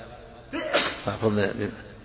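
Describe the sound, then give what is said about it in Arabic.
A single sneeze bursts out, sharp and breathy, trailing into a short stretch of voiced murmuring. “رحمك الله”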